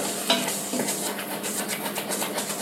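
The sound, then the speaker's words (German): Food sizzles steadily in a hot pan on a stove turned up to setting 9 and starts to burn, a dense hissing crackle, with a couple of brief scraping clinks as it gets stirred early on. No one speaks. “Schätzchen, das brennt an.”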